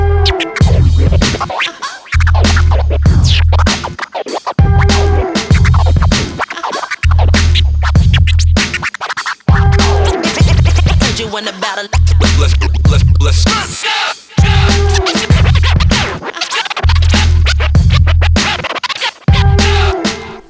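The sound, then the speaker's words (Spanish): A hip hop beat with punchy, steady kick and snare drums repeating in a loop, while DJ scratches cut sharply in and out over the rhythm. Loud, with no voices. “…, …, sobre un track de …. Suena bien, tiene buen swing.”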